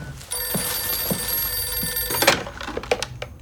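An old-style telephone bell rings in an antiquarian bookshop that is closing, in one steady, shrill burst lasting about two seconds, then cuts off abruptly, followed by clattering handling noises.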